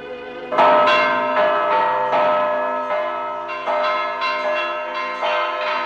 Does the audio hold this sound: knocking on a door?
no